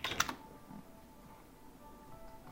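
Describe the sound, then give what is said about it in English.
A quick burst of typing on a computer keyboard, a few sharp clicks close together at the start, then only a faint steady hum. “Uh, excuse my sound, my keyboard sound.”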